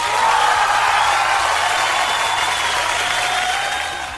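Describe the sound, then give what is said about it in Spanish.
Steady applause from a group welcoming a man as he arrives, a dense wash of many hands clapping at once, sustained and fairly loud for several seconds before tapering slightly at the end. “le vamos a dar un aplauso.”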